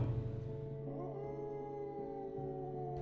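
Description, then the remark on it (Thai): A dog, Ai Dok, howls in the middle of the night from across a canal in a long, sustained, wavering tone that bends in pitch, with a steady low hum underneath and no one speaking. “บุรันตื่นขึ้นมากลางดึก เพราะได้ยินเสียงไอ้ดอกหอนข้ามฟังครองมา”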